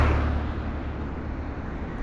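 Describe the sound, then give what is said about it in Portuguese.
A steady, heavy rumble of street traffic, with trucks and cars rolling past. Deep engine drone and road noise fill the whole stretch without a break, and no one speaks. “passa caminhão, e passa carro pra caralho.”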